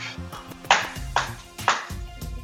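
Three sharp, loud knocks on a door, evenly spaced about half a second apart, with no voices, each a crisp rap over a faint low background.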